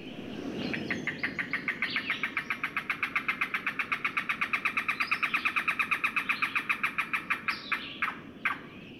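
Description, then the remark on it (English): A cuckoo calls in a long, rapid series of clucking notes, steady and fairly loud, slowing slightly and breaking into a few separate notes at the end. No one speaks. “Cuckoos are secretive and tend to perch motionless for a long time, so finding one can be really tricky.”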